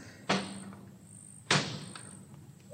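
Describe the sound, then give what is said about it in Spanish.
Two solid thuds about a second apart as a door is shut firmly, each a sharp knock with a short fading tail. “ha cerrado la puerta.”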